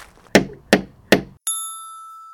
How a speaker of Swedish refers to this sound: Vi knackar väl på!